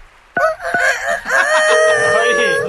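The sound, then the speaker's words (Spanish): A man, addressed as a lawyer, imitates a rooster crowing for a 'Mexican Alarm' wake-up phone call, a loud, strained cock-a-doodle-doo with wavering harmonics that rises and stretches into a long held, quavering final note. “Que cante el gallo. Hágale como gallo, abogado.”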